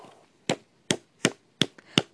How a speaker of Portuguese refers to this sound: Palmas, querida, palmas, muitas palmas para você, muitas palmas para você, querida.